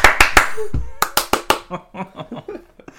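Sharp hand claps in two quick bursts of three, loud and crisp, with a brief pause between them, followed by softer talking or laughing voices.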